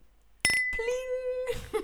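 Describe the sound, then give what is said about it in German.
Glasses of sparkling iced tea clink together in a toast, a bright ringing chime that hangs briefly and fades, followed by a second softer tone and a short burst of voices. “Prost. Oh. Cheers. Cheers und Salut.”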